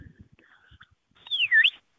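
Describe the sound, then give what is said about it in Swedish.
A single clear dog training whistle signal, meaning 'left' to the dog, rises, dips and rises again in a quick two-part tone, fairly loud, preceded by a faint quieter whistle and soft rustling. “Och vad betyder det? Eh, för, för min hund mm. Eh, betyder det vänster.”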